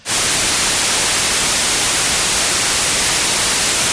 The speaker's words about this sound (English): white noise is a synthetic noise it's the noise that you hear when you are listening to the radio but you are just not tuned to a station. You are in between two stations you, and you have that static shh.